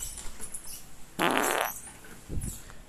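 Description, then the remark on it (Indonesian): A loud, buzzy fart bursts out for about half a second, followed by a shorter, lower puff a moment later, heard close up with no talking. “itu namanya suara kentut”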